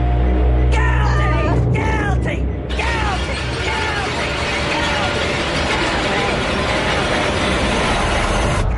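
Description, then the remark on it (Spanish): A car engine starting, with a loud, steady mechanical grinding and rattling that carries on for several seconds without letting up. “Entré en el coche y estaba a punto de arrancar.”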